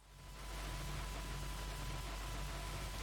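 A faint, steady hiss of static with a low electrical buzz underneath, fading in over the first half second and then holding constant. No voices.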